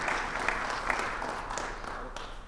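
A crowd applauds steadily to welcome a speaker, a dense wash of many hands clapping at once with a few sharper claps standing out, sustained and fairly loud throughout.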